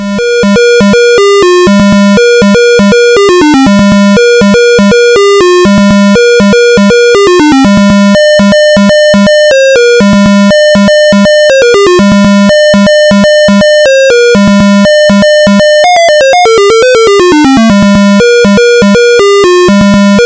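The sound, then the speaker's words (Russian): A loud 8-bit chiptune from a ZX Spectrum game title screen: buzzy square-wave melody over a bouncing, staccato bass, with quick rippling arpeggio runs, playing continuously with no voices. “Тринадцатый выпуск подкаста о чиповой музыке на zx-spectrum”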